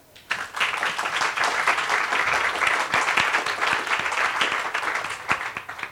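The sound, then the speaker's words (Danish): A room full of people claps steadily for a panel debater as she is introduced, a dense wash of many hands that starts abruptly and keeps up at an even, loud level for several seconds before beginning to fade. “Giv Anna en stor hånd.”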